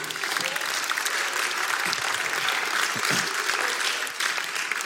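A crowd applauds steadily for about five seconds, a dense wash of clapping at even loudness with no break, dipping only slightly near the end.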